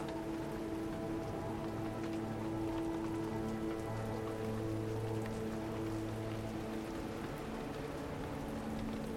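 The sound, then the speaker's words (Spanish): Steady rain pattering on a surface, a dense, continuous wash of drops that stays even throughout, with a soft low hum running underneath and no voices. “Hoy realizamos una meditación con los sonidos de la lluvia, buscando calmarnos y renovarnos a través de sus gotas.”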